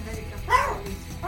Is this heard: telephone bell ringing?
no